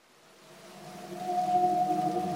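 A long, tonal whale call swells slowly in loudness, a sustained moaning note with rich harmonics sliding slightly upward, heard alone with no talking.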